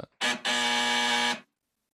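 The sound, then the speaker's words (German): A loud electronic buzzer sound effect from a soundboard sounds twice: a short blip, then a sustained harsh buzz lasting about a second, rich in harmonics, with no voices present. “Hätten wir eigentlich für die Jubiläumsfolge 30 nehmen können als Klingel.”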